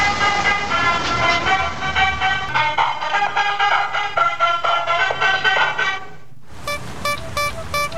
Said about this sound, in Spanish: Si alguna vez estuviste por México o si pensás ir, estos son los sonidos de los vendedores ambulantes en la Ciudad de México. El camión del gas.